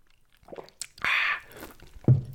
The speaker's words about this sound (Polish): I teraz, ponieważ już 20 minuta się zbliża, łyknę sobie swojego whisky z kolą.